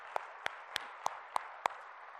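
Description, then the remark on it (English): Six crisp hand claps land in a steady, even rhythm about a third of a second apart, given as a hand clap of appreciation by a church audience at an evening service, ringing out over a soft diffuse murmur with no talking. “Can we give them a, a hand clap of appreciation?”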